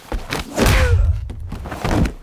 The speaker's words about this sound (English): Or maybe they add like a punching sound if the punch isn't loud enough in the stunt scene.